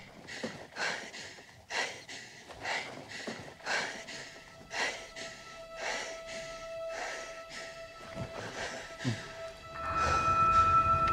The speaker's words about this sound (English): Heavy breathing. Okay, now she's slowing her breathing, getting in touch with her feelings.